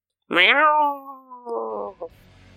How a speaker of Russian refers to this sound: Издали клич призрачные кошки, атакуя крысиное войско.